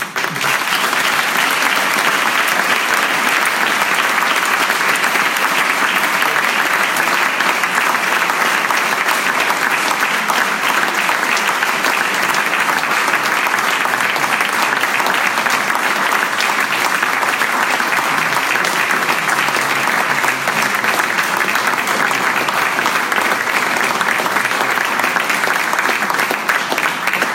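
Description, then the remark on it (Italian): Sustained, loud applause from a large audience for a British author of historical novels fills the whole stretch, a dense, steady wash of clapping that never lets up for nearly half a minute, with no speech over it. “mi sembra che siate d'accordo con me perché è l'applauso più lungo che ho sentito in quattro anni e ce ne sono stati insomma di notevoli”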